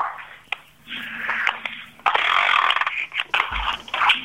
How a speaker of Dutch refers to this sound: ik zou die timer nog wel eens willen horen. Ja, die timer mogen nog wel een paar minuten laten draaien. Ja, zo lang mogelijk hoor.